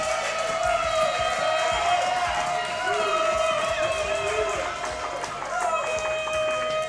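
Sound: crowd cheering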